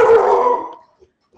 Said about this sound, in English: Sorry about that. That was my dog